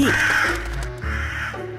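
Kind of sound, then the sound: bird, crow cawing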